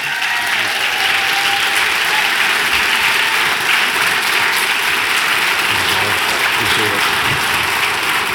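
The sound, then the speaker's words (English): A church audience stands and claps steadily and loudly for the whole stretch to welcome guest speaker Robby Dawkins, a dense, even wash of many hands applauding with no break or fade. “Uh, can you guys stand up and give Robby Dawkins a big a big hand for for being here?”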